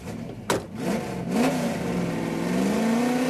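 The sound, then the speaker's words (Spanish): A luxury car's engine revs and accelerates to 180 km/h on Paseo de la Reforma in Mexico City, its pitch rising steadily after a sharp click near the start, with a continuous mechanical roar and no voices. “Raimundo acelera a 180 kilómetros por hora”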